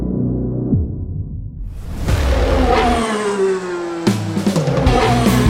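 Loud car engines rev and accelerate, pitch climbing in sweeping surges, with a sharp whooshing burst near the end as another engine roars up.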